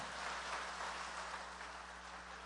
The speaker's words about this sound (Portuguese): Quer aplaudir? Pode aplaudir, mas aplaude a Deus, é a mim não